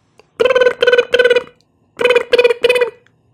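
A telephone rings as a call is placed to a TV station, in two loud bursts, each made of three quick buzzy tonal pulses with a short gap between the groups. No one speaks.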